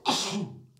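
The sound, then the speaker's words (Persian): A single sharp sneeze bursts out, a loud noisy blast that fades quickly into a short breathy tail. “ببخشید عافیت باشید سلامت باشید”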